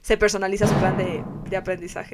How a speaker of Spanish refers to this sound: No sé qué pasó ahí. Eso fue como entramos al emperador chino. ¡Boom! no, la verdad es que es, es una lata que está en una mesa hermosa, carísima que tenemos, que a veces uno se golpea sin querer y suena así como ¡tum!